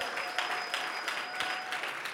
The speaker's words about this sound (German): lass uns doch mal auch gerade hier im Standort in Nürnberg, lass uns nochmal unseren Freunden in Erlangen nochmal einen richtig großen Applaus geben und ihnen sie einfach willkommen heißen.